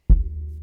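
A single dull thump from bumping furniture that holds a microphone arm, followed by a low, steady humming resonance that lingers and slowly fades. No voices.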